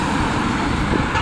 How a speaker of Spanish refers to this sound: perdón por el ruido de coche voy a intentar pasar lo más rápido posible